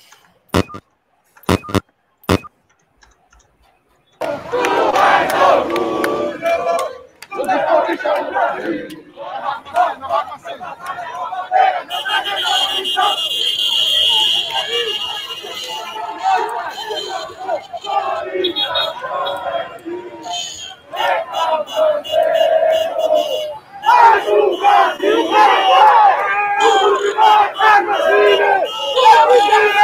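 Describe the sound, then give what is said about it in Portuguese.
A few sharp clicks, then a large crowd of fans chants and shouts loudly and continuously at a reception for their team's double-decker bus ahead of a Copa do Brasil match, the mass of voices surging with brief dips, dense throughout. “Vamos ver as imagens aí um pouquinho de como foi a recepção.”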